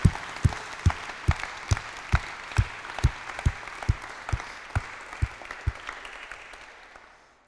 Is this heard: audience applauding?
yes